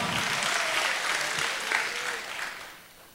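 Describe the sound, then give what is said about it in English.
After a countdown of three, two, one, an audience gives the Lord a hand clap, a dense, sustained burst of applause that stays loud for a few seconds and then tapers off toward the end. “Come on, y'all give the Lord a hand clap.”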